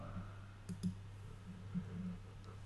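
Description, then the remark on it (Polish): A few soft computer mouse clicks, quiet, spaced irregularly with a brief double click, over a low steady electrical hum and no talking, as someone clicks to select iPad models. “A kliknę iPad R2”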